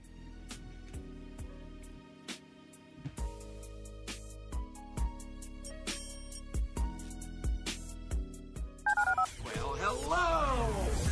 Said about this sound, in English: Dial the phone.